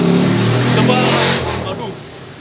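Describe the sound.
A Ford car drives past in the Gunawarman area, its engine droning loudly for a moment and then fading as it moves away, with voices audible in the background.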